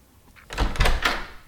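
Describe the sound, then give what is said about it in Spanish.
The door of the first room on the right swings open with a low thump followed by a couple of scraping, creaky bursts of the hinges and wood, lasting about a second, with no talking over it. “A ver, vamos a ver, vamos a abrir este primer cuarto que tenemos de nuestro lado derecho.”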